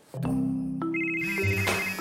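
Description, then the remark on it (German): A telephone rings with a loud electronic ringtone, a short melodic run of sustained tones that step between pitches, with no voices over it. “Telefon.”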